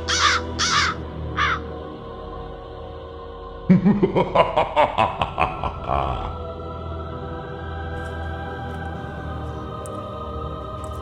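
A crow caws harshly three times, then after a short pause lets out a quick run of about eight loud, rasping caws, followed by a low steady hum.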